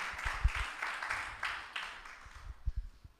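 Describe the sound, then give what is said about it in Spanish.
A small group applauds briefly for Christ, a soft, scattered patter of hand claps with a few heavier thumps, fading toward the end. “Un aplauso a Cristo por eso.”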